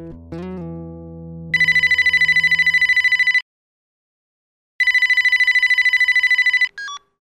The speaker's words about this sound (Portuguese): Minutos depois, o telefone tocou.